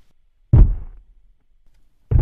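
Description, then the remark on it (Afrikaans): Two loud, booming thuds land about a second and a half apart, each deep and heavy with a short rumbling decay: the footsteps of a giant stomping, with silence between. “Die inwoners word baie bang toe hulle die harde voetstappe van die reus hoor en veral toe hulle hom sien.”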